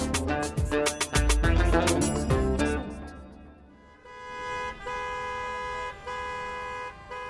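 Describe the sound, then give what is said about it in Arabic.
Several car horns honk over one another in a loud, chaotic burst in a morning traffic jam, then one long blaring horn holds on with short breaks above a low rumble of idling traffic. “ازدحام السير الصباحي أصبح جزء لا يتجزأ من حياتنا اليومية وين ما نكون على الأغلب معظمنا مر بهالتجربة المزعجة منصير نتمنى تفك الأزمة ما نصبح على دوشة الزوامير”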